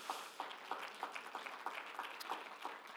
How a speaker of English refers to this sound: All of our guests, can we give them a wonderful hand clap?